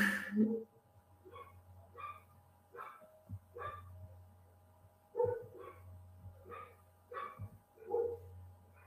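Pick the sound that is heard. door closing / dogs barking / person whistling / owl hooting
dogs barking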